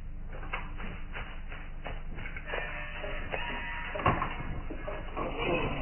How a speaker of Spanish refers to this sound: El mastín gime lastimero al tiempo que rasca con una pata en el piso donde hay cuerdas rotas.